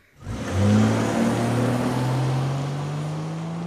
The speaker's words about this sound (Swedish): Ljudet av en bil som kör iväg, eller rättare sagt, ljudet av en bil med förbränningsmotor som kör iväg. En elmotor låter ju inte.